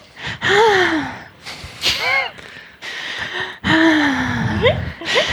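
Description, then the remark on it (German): Loud heavy breathing with repeated sharp gasps and strained, voiced exhalations, several in a row with brief pauses between them. “Atmen?”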